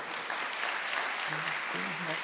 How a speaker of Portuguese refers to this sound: Vamos aplaudir pelos discípulos de Jesus.